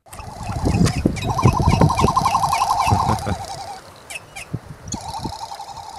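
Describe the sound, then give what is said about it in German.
A frigatebird gives a rapid, rattling clatter of repeated notes, loud, over a steady rush of wind, pausing briefly before the clattering resumes. “dieses Klappern, dieses mm, ja, dieses, Jodeln. Ja, dieses lustige Geräusch. Ich habe mal einen Ton rausgesucht, wie das klingt.”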